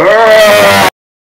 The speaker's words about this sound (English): a bestial roar